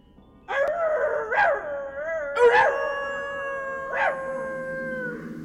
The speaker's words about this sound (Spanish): Los aullidos de los lobos se oían cada vez más cerca como si nos fuesen rodeando por todas partes.